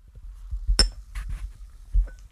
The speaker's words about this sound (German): Leute, nehmt euch mal ein Getränk bei euch zu Hause und stoßt mit mir an.